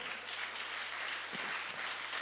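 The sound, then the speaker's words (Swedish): A crowd claps steadily in applause to the Lord, a dense, even wash of applause that holds at the same level throughout, with no voices heard. “vi applåderar Herren för han har talat till mitt hjärta.”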